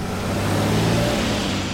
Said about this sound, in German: Auch der Verbrennungsmotor wird wohl bald Geschichte sein und damit dieser so definierende Klang eines Autos.